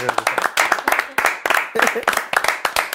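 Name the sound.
hand clapping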